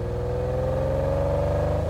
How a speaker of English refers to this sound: I think I just heard Peter Lavac's car or a Lamborghini